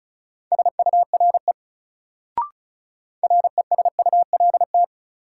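Rapid Morse code keyed at 35 words per minute as a steady mid-pitched tone, part of a new-word drill in sets of three words: fast bursts of short and long beeps forming two groups separated by a brief click, with no voices.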